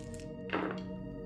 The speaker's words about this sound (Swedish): eh, jag vill sedan att du slår tre omod tre omodifierade tärningar.